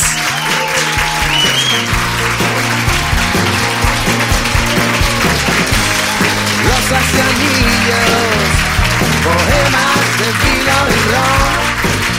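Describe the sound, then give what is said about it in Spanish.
Sustained audience applause for a band at a Cadena 100 radio live session, a dense steady wash of clapping at a fairly loud, even level for the whole stretch, with no voices standing out above it. “Un aplauso para ellos.”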